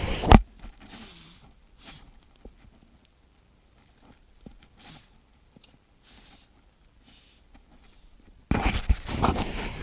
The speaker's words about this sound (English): So what I'm going to do is Ah, hold on, you're going to hear a little blowing.